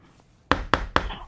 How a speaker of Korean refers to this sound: 노크했어요.